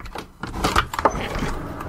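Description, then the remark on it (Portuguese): A window is opened with a short scraping, rattling slide and a couple of sharp knocks as it moves, heard on its own with no voices. “Bianca, abra logo essa janela ou não vamos descobrir que som é esse.”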